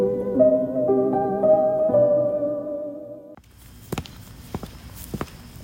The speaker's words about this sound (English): Those footsteps, they belong to me.